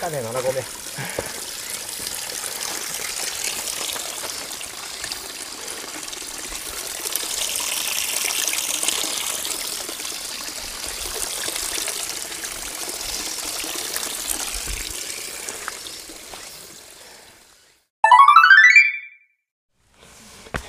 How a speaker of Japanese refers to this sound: 7合目にせせらぎが。